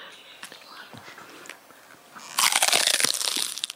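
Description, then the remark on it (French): A sudden burst of loud, gritty crunching tears in after a quiet stretch of small clicks and rustles, a sound effect of a werewolf savagely biting into flesh and bone, performed for radio, continuing in rapid ragged pulses. “imaginez un loup-garou qui vous attrape la nuque ou le bras, qui vous déchiquette”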